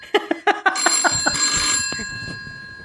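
A telephone bell rings with a rapid burst of clattering strikes, then a sustained metallic ring that lingers and slowly fades. It is fairly loud, with no one talking.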